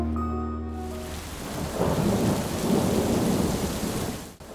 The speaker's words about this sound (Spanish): Inició una tormenta brutal que acabó con la quietud de la noche. Con una incesante caída de lluvia, se mezclaban los ruidos del exterior